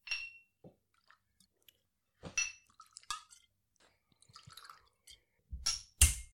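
At a whisky tasting, a cork pops and whisky glugs in short gurgling bursts into glasses, with a ringing glass clink at the start and scattered light taps and drips in between. No one speaks.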